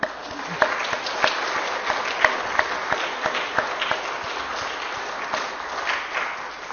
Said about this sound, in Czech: Tak já bych chtěl, aby jsme zatleskali těm, kteří teda eh, to připravovali i vám.